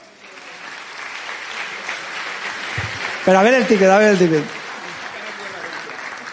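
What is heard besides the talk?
audience applause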